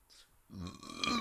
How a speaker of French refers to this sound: Il y a l'enfant qui revient toujours, c'est comme le, fameux euh, je rote, là, c'est dégueulasse.